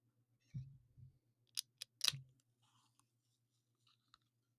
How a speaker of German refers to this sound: Ja, das eine war eine schöne Dose Lemon Soda.